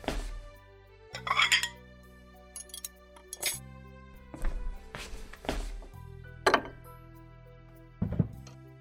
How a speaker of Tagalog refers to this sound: Titiwangwang na naman ang pinggan mo dyan, kakaintay sa'yo. Okay na kuya, kukuha na ako ng pinggan ko.